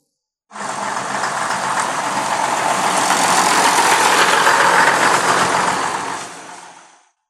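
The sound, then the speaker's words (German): The engine of a large bus taken to school idles and rumbles steadily for several seconds, fairly loud, with a broad hissing texture; no one speaks, and the sound fades out at the end. “Danach gehe ich in die Schule mit dem Bus.”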